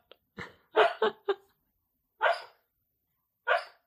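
A sleeping, dreaming dog lets out a quick burst of four soft, muffled woofs, then two more single barks after long pauses, with no talking.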